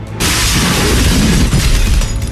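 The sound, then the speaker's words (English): A window shatters as a creature bursts through it, with a sudden loud crash, followed by a sustained bright spray of breaking glass and rumbling debris that gradually thins out over about two seconds. “I grabbed the bag of rock salt that I keep for my ice cream maker and dug out a handful as the savage stool sample burst through one of my windows.”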